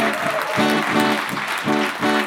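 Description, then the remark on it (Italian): Loud, sustained audience applause for the evening's guest, a musician and producer: a dense wash of clapping throughout, with pitched voices or tones swelling and fading in a steady rhythm roughly twice a second. “poi ringraziamo infinitamente l'ospite di questa sera, ci ha fatto un enorme piacere eh, a venirci a trovare, lo abbiamo invitato, ha risposto, quindi un grazie e un applauso grande a ….”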